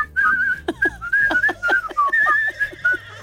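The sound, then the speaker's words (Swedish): A person whistles a cheerful Christmas tune, the clear tones moving steadily through a short melody, with light background clatter and no talking. “att om man vill ha hatiska blickar på stan då ska man glatt gå runt och vissla julmusik.”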